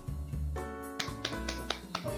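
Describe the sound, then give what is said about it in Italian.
A single person claps a handful of sharp, slightly irregular, fairly crisp hand claps as mock theatre-audience applause, over music playing steadily in the background. “Abbiamo effetti super fighi, ma io sto facendo l'applauso da platea, eh.”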